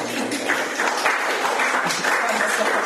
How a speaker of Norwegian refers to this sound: jeg tror ikke vi skal spørre om mer applaus, bare det går bra.